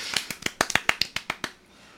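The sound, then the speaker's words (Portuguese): A brief burst of applause: about ten quick, sharp hand claps in an uneven rhythm, moderately loud, ending after a second and a half into quiet. “Ah, salva de palmas aí”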